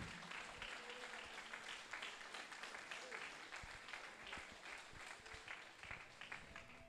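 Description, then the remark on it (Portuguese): Steady applause from a crowd, a dense wash of many hands clapping at an even loudness throughout, with some scattered voices mixed in. “Pode aplaudir mesmo.”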